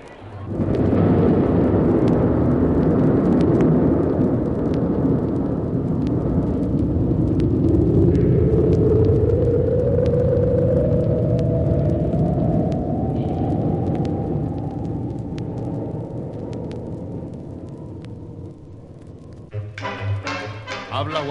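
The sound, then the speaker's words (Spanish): A loud, sustained rocket engine roar fills the whole clip as the rocket Tirano launches with three crew aboard, a deep rumbling blast whose tone slowly climbs in pitch before it shifts abruptly near the end. “Los tres tripulantes nos hallamos atados a nuestras literas especiales, sufriendo los horribles efectos de la aceleración.”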